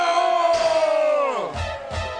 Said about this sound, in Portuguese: Ao chegar às escadas, foi preciso que os soldados o carregassem, por causa da violência da multidão, pois a massa de povo o seguia gritando: mata